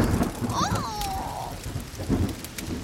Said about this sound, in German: Und auf einmal begann es zu regnen. Aus dem Nichts heraus.